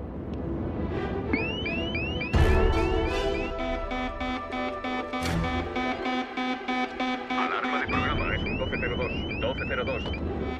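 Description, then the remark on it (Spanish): Loud electronic alarm tones from a lunar module computer, the 1202 and then 1201 alarms going off just before powered descent: rapid repeating rising chirps over a sustained, buzzing harmonic drone, punctuated by a sharp burst early on and continuing steadily throughout. “Entonces saltan dos alarmas, la 1202 y después la 1201.”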